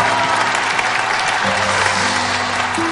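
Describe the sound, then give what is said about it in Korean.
Steady applause from an audience fills the whole stretch, a dense wash of many hands clapping at once, loud and continuous with a faint musical tone sustained underneath. “박수 한번 보내주시기 바랍니다.”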